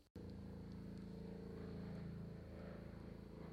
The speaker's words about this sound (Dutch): Ja, wat u op de achtergrond uh, overigens hoort is eh, een politiehelikopter die ja, steeds vaker boven steden cirkelt. Ehm, ja, waarom eigenlijk? Rondjes draait, dingen in de gaten houdt.